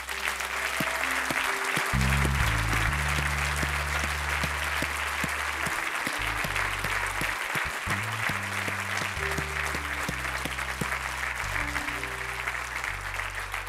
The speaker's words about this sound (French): Je vous regarde, je vous regarde parce que je veux prier pour vous, puis j'honore votre courage. Est-ce qu'on peut les applaudir ce soir?